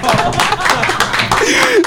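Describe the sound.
An audience claps steadily in a dense, continuous patter, with laughter and voices mixed in throughout.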